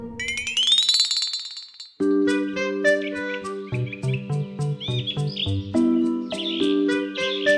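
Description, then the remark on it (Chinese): A single rooster crow at six in the morning, rising in pitch and then holding a bright, strained note for about two seconds, followed by cheerful instrumental music with bouncy plucked notes. “隔天，太阳公公出现了，公鸡好努力地啼叫着，这表示已经是早上的六点了。”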